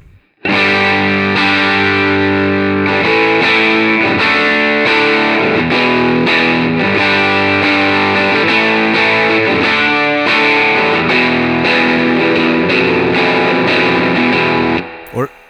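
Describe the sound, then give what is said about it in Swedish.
A distorted electric guitar, played through a pedal into a Hudson Broadcast used as a preamp and then into a Dream, plays sustained, chordal phrases for about fourteen seconds, thick and saturated with a steady, loud level, ending in a short burst. “så den här pedalen in i Hudson och sen in i Dreamen. Så här, så här låter Hudson då.”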